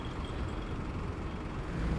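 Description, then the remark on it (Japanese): Steady low road rumble of heavy car traffic on a street around Tawaramachi, the station next to Asakusa, heard while walking; a continuous wash of engine and tire noise, swelling slightly near the end as one vehicle passes. “でもこうして歩いていると人通りは人通りというのかな車の通行は非常に多いと思いますね皆さんお仕事されてるとかああとはお子さんがお休みでちょっとこうお出かけ行くのに車使ったりしてんのかな今俵町辺りを歩いてるんですが浅草の隣の駅ですね”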